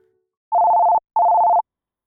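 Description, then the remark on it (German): Two steady electronic telephone tones at the start of a phone call, each about half a second long with a short gap between, sounding clear with no talking. “In den nächsten Minuten werden Sie einen solchen Schockanruf hören.”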